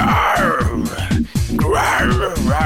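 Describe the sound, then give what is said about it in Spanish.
Loud zebras call during mating, a continuous run of hoarse, rhythmic groaning brays in quick repeated pulses with wavering moans over the top and a brief break in the middle. “recibirás en tu teléfono el auténtico sonido de cebras rugiendo de amor.”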